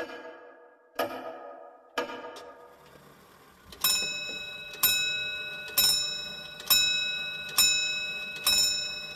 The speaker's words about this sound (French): Telle une réponse venue du néant, l'horloge résonna plusieurs coups de gong annonçant la nouvelle heure.